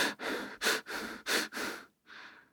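Quick, audible anxious breaths through the mouth, about six rapid inhale-exhale bursts in a steady panting rhythm, fairly loud, with a brief pause before a final breath.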